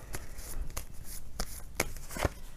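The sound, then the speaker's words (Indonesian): Tarot cards are shuffled for a Capricorn reading, with a series of sharp, dry slaps and riffles spaced irregularly across a few seconds, no voices present. “Kita bacakan sekarang kartu tarotnya.”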